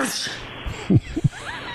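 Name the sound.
sneeze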